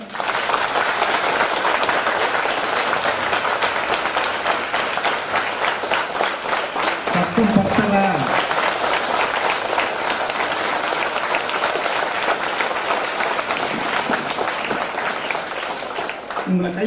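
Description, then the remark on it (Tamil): A large audience in an auditorium claps steadily for about seventeen seconds at the speaker's request, a dense, sustained wash of applause with a few brief voices rising through it. “அவங்களுக்கு ஒரு மரியாதை செலுத்துறதுக்காகவும் உங்களை நீங்களே உற்சாகப்படுத்துறதுக்காகவும் இந்த அரங்கமே அதுக்கு முன்னே கைதட்டுங்க பார்க்கலாம்”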